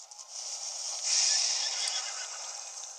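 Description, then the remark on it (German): A horse neighs in a long, shrill whinny that swells to its loudest about a second in, then trails off in shaky, quavering breaths. It is loud, with no talking. “So undankbar, dieses Pferd.”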